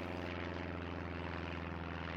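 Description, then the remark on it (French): A small propeller airplane, bound for Oran, drones steadily, its engine holding an even, buzzing hum throughout, with no voices. “Dolores a embarqué dans un petit avion quelques semaines plus tôt, direction Oran, puis Paris, puis l'URSS.”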